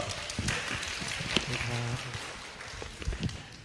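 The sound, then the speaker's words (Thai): An audience at an afternoon seminar applauds with a dense patter of many hands clapping at once, steady and moderately loud throughout, while a voice briefly murmurs underneath. “ขอบคุณสำหรับเสียงปรบมือนะครับ อาจจะเป็นเสียงปรบมือเดียวของวันนี้ก็ขอต้อนรับกลับสู่การสัมมนาในช่วงบ่ายนะครับ”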